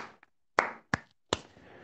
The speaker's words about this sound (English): Uh, it doesn't always need kartals, mridanga. We can simply clap.